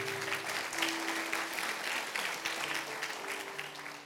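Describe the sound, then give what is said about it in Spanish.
A church audience claps steadily and loudly for several seconds, applause offered to the Lord, a dense wash of many hands with a faint sustained tone underneath and no speech. “Vamos a darle fuerte ese aplauso y se lo va a dar el Señor.”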